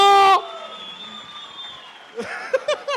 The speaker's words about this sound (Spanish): ¡Un aplauso